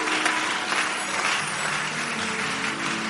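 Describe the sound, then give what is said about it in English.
Clapping fills the whole stretch, a dense, steady patter of many quick hand claps blending into an even crackling texture at constant loudness, with no voices. “Are you clapping or you are doing something clapping?”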